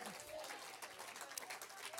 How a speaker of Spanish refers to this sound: O oh, alguien póngase de pie y un aplauso al que ya viene. Grítelo, Cristo ya viene, grítelo.